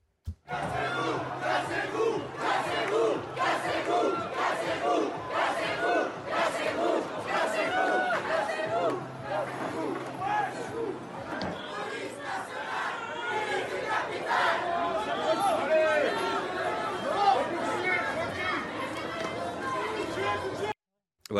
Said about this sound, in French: Une manifestation anti-réforme des retraites a dégénéré. Oui, il y a eu des échauffourées entre euh, la police et 250 individus violents. Des poubelles ont été incendiées et on pouvait même entendre des chants anti-police. Écoutez.